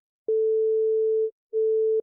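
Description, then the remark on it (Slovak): A telephone ringback tone heard while a call to a building management office connects: a steady, mid-pitched electronic beep lasts about a second, pauses briefly, then sounds again, clear and alone with no voices. “Je pondelok 15.42, no tak to sa priam pýta, aby som zavolal.”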